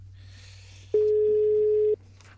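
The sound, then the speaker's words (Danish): A single steady telephone ringing tone sounds for about a second while a Radio Loud radio programme places a call to a listener for a quiz, loud and clear over a low background hum, with no one speaking. “Hvis man er derude, tag telefonerne.”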